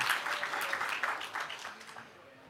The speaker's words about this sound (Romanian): Haideți să-i aplaudăm și pe ei.